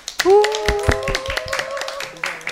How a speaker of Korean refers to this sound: 큰 박수로 모시겠습니다.